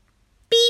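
A short, bright electronic-style beep, likely voiced by a person in imitation, rings out once after a moment of near silence, fairly loud, lasting about a quarter second.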